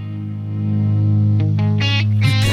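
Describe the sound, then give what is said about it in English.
A recorded song plays loudly: a sustained, heavily distorted guitar chord swells in, then bright rhythmic bursts of drums and effects-laden guitar kick in toward the end. No one talks over it. “Let's hear one more. Uh, I, I love this song so much.”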